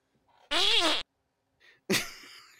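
A loud fart with a buzzy, wavering pitch lasting about half a second, then after a brief pause a second, breathier, sputtering burst that trails off.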